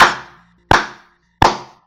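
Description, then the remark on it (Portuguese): Three loud, sharp hand claps spaced evenly apart in a slow, deliberate rhythm, each one ringing out briefly before the next, with no voices. “Tô aqui de pé aplaudindo esse momento.”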